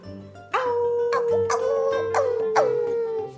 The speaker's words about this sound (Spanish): es el aullido de los lobos. El lobo gris eleva el hocico y canta con sus hermanos.